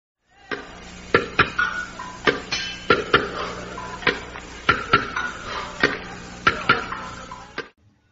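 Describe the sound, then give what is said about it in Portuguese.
A hammer strikes a helmet over and over, part of an artist's performance, in an uneven rhythm, about a dozen sharp metallic knocks with a faint ringing tone between them, fairly loud and with no talking. “Esse som que você acabou de ouvir agora é o som de um martelo batendo em um capacete, faz parte de uma apresentação do artista”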